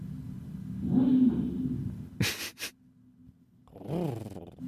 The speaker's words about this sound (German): Ja, ja. das, das ist die Klimaanlage.